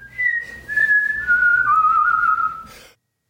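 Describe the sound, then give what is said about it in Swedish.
A man whistles a slow melody, the Internationale, the clear pure tone stepping gradually downward in pitch over a few seconds, fairly loud, then stopping abruptly. “Där tog visslingen slut och det var Internationalen som din man för övrigt visslade an, eller hur?”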